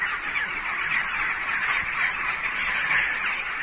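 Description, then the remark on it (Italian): A dense, continuous racket of many birds squawking and calling frantically at once, loud and unbroken throughout, with no individual call standing out from the agitated flock; the birds are going frantic moments before the strongest earthquake shock. “Questi sono gli uccelli che impazziscono qualche istante prima della scossa peggiore.”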